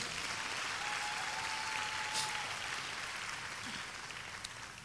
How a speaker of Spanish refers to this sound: ¿Lo creen? Deberían aplaudir más ustedes, ¿eh?